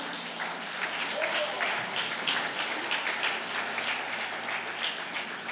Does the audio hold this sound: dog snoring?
no